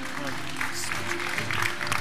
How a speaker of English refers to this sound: Come on, let's give the Lord a clap right now.